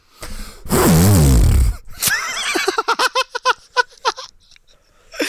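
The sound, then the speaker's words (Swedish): A voice imitates explosive diarrhea: a loud, rough, wavering blast followed by a string of short wet sputters and bubbly pops, uneven in rhythm, tapering off. “Hur låter explosiv diarré?”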